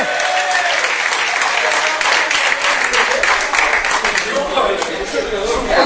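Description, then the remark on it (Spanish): Loud, sustained applause from an audience, a dense wash of many hands clapping at once for several seconds, with some crowd chatter mixed in underneath. “¡Un aplauso!”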